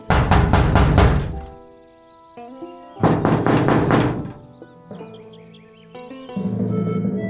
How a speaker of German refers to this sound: Okay, dann klopfe ich mal an.